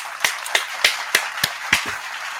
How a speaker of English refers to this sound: Let me hit the right applause button there.